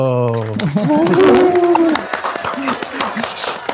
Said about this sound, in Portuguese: Mas, além de tudo, ela é uma excelente profissional e ela é uma excelente aviadora e não é nada mais nada menos justo a gente receber né, com uma salva de palmas